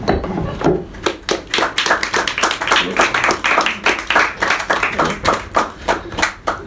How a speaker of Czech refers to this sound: Ale teprve to, co se přihodilo v posledních deseti letech zásluhou manželů, kde jsou Antonína a Adély Petruželkových, já jim musím zatleskat.